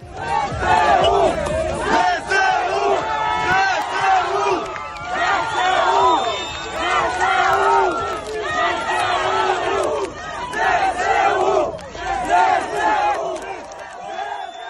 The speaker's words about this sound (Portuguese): O som que acabamos de ouvir é de festejos de populares perante a chegada das tropas ucranianas a Kherson nos últimos dias, depois do anunciado recuo das tropas russas.